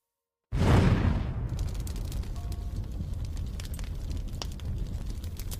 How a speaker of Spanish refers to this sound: cuando una tremenda explosión sacudió los cimientos de la casa. Habían tenido que dinamitar la caja fuerte.